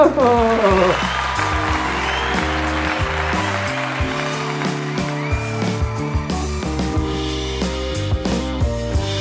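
A round of applause, dense steady clapping that continues throughout, mixed with an upbeat tune of sustained bright notes. No one speaks.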